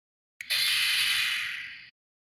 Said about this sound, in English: You can be generic with that one. Oh. Door opening? Door opening, that's right.